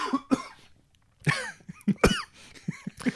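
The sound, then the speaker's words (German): Several harsh, sputtering coughs in irregular bursts after a sip of sugar-free cola from a plastic bottle: one pair, a short pause, then a longer fit of choking coughs as the drink went down the wrong way. “Das ging in die falsche Röhre.”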